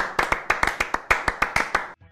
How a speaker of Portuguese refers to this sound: Uma salva de, uma salva de palmas. Bateu uma salva de palmas aqui pro profissional.